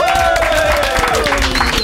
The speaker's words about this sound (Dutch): Hier geef we een groot applaus. Irene Moors!